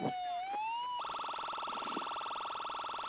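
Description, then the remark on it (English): An ambulance siren sounds loud, a rising wail that abruptly switches to a fast, pulsing yelp and keeps going steadily, with no voices. “and they said, "What are you doing chasing that ambulance?"”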